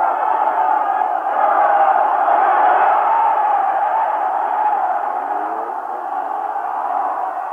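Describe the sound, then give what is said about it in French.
A huge crowd along the route from the airport to the cemetery, everyone trying to touch the old religious leader's car, roars without pause, countless voices shouting and chanting over one another in a dense, excited din of popular jubilation and indescribable chaos that stays loud and steady the whole time. “Et cela a donné sur chaque mètre du long parcours qui séparait l'aéroport du cimetière un mélange de liesse populaire et de pagaille indescriptible.”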